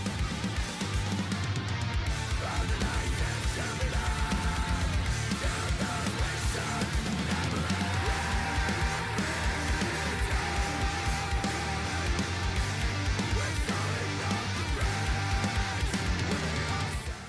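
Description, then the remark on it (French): Dense, relentless technical death metal plays at full volume throughout, with rapid, intricate drumming, heavily distorted guitars and a churning low end, and no talking over it. “pour tous ceux qui viennent du prog et qui souhaitent découvrir un peu le death technique en fait”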